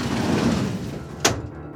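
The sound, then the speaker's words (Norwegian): The drawer of an unlocked metal filing cabinet rolls open with a steady, gritty sliding rumble that ends in a sharp clunk as it hits its stop, fairly loud, with no voices. “Arkivskapet var ikke låst.”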